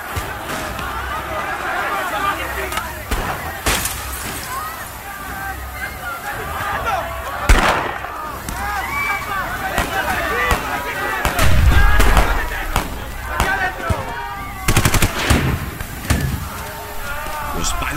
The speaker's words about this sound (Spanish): Entonces, lo que hasta entonces había sido una golpiza grupal, se convirtió en una carnicería cuando al fondo comenzaron a escucharse detonaciones que vaticinaban la muerte en masa.